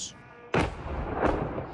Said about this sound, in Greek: εκρήξεις συντάραξαν τη νύχτα την πόλη Τζανκόη στα βόρεια της Κρυμαίας. Με το Υπουργείο Άμυνα τη Ουκρανία να ενημερώνει ότι καταστράφηκαν ρωσικοί πυραυλικρού που μεταφέρονταν σιδηροδρομικώ.